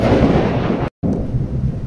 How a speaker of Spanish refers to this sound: Me espantó un trueno.